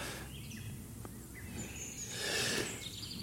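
Birds sing in a forest, scattered chirps and short whistled phrases over a low outdoor rumble, with a brief rustling swell near the end. No one speaks.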